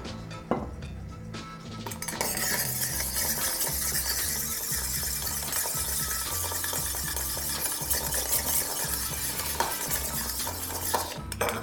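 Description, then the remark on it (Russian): Ice cubes clink and rattle steadily as they are stirred around inside a metal cocktail shaker to chill it before mixing a cognac, citrus liqueur and lemon juice cocktail, a continuous jangle lasting about ten seconds with no talking. “Охладим с вами наш шейкер.”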